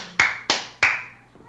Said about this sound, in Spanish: Me pongo de pie. Te pones de pie, parado, con tus pies, esto, y aplaudes con tus manos que están pegadas a tus brazos.